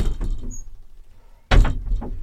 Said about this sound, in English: I'm going to open some uh, uh, some windows and doors. Let's do that.